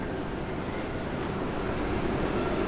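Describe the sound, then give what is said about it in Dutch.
Steady rumbling of a moving night train, a dense low roar of wheels on rails with a faint high whine, continuous, no voices. “Instappen bij de nachttrein, dat is iets heel anders dan een gewone trein.”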